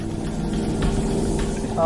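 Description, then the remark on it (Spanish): A coast guard patrol boat engine drones with a steady, low rumble throughout, constant, with a faint higher tone creeping in near the end. “Suena como las lanchas de los guardacostas.”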